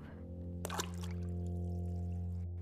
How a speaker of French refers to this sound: La sorcière éclaboussa de la potion en direction de Léa